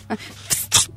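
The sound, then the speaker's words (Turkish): Someone vocally imitates the air released when a jar lid is pried open with a knife: a soft breathy onset, then two sharp hissing bursts of escaping air, fairly loud and quick. “kavanozun kapağını bıçakla açarken çıkan hava sesi Böyle demiş.”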